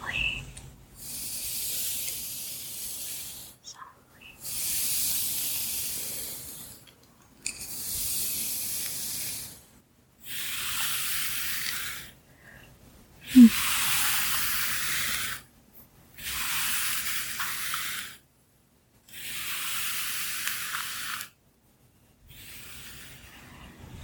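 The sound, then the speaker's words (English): A hairbrush sweeps softly through undone, freshly parted hair before braiding, in about eight long bristly strokes, each a soft scratchy rush lasting a couple of seconds, separated by short pauses in a steady rhythm. “And let's see, I'm gonna part it again. And brush it soft.”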